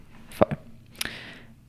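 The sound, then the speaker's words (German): A couple of short, stifled sneezes, two quick bursts close together followed by a sharper one that trails off in a breathy hiss, with no talking. “Gesundheit. Gesundheit.”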